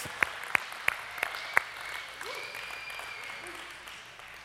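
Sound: audience applauding and cheering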